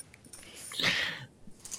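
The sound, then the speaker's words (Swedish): A dog in the background gives a brief, whiny vocalization lasting under half a second, followed by faint shuffling sounds in otherwise quiet surroundings. “Sen i bakgrunden så har ni mina hundar också”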